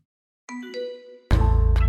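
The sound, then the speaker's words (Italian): A short text message alert sounds on a mobile phone: two bright chiming notes, then a loud, rapidly pulsing buzzy tone that fills the rest. No one speaks. “l'arrivo sul telefono cellulare di Ivano Piovanelli, fratello di Desiree, di un sms”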